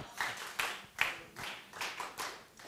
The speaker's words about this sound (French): Donc on peut l'applaudir pour l'honorer.